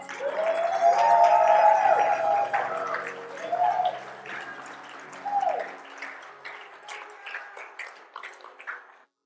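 An audience breaks into shouting and applause, with raised voices and whoops over a dense wash of clapping that swells early, then gradually thins and fades out over several seconds.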